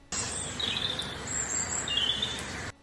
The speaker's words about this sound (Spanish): Así es, este óleo sobre lienzo fue pintado en el siglo XVII por Juan de Arellano y representa un despliegue de aves que cantan a coro.